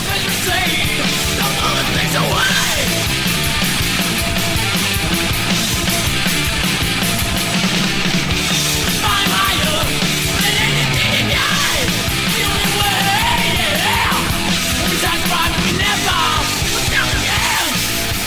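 Loud, fast heavy metal plays continuously, with dense distorted guitars, pounding drums and shouted vocals filling the whole stretch at a steady, driving pace.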